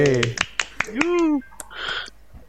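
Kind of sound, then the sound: crowd, hand clapping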